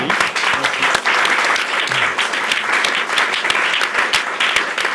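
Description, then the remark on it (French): An audience applauds steadily for about five seconds, a dense, loud wash of many hands clapping with sharp individual claps poking through, sustained without pause or voices. “On peut t'applaudir.”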